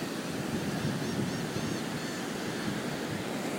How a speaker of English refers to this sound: You can hear the surf, seagulls maybe.